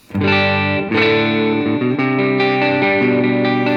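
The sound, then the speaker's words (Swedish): Warm, mellow electric guitar chords ring out sustained, played on the neck pickup with its volume lowered to about 8, a few strums blending with light overdrive and a chorus-like shimmer, played alone without any talking. “sänker volymen på halsmicken lite grann till typ 8.”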